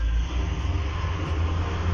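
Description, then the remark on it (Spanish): The speaker's own car passes outside, its engine rumbling steadily, a low, continuous drone holding the same fairly loud level for the whole moment, with no voices over it. “Ahí van a escuchar mi carro porque no se olviden que este es un podcast casero en el cual nuestra alimentación son los carros al pasar.”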